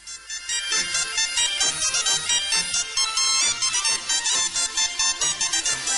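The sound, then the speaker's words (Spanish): Lively carnival pasacalle played by a folk band, with bright, busy melody lines over a steady marching pulse, loud throughout, with no talking. “quería dedicaros este pasacarreras de carnaval de la …”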